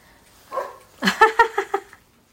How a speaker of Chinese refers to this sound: 楼下有狗叫